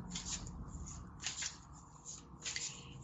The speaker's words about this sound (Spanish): Estamos acá con las cartas del tarot. Voy a mezclarlas un poco.